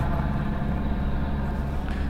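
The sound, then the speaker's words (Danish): A dark green military helicopter of Søværnets Operative Kommando (naval operative command) flying overhead drones steadily, a loud, continuous low-pitched rumble with a throbbing mechanical texture that persists unchanged throughout, with no voices over it. “alarmen ja, fra helikopteren.”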